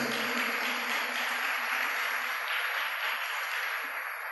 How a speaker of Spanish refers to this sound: Dele fuerte ese aplauso al Rey bendito.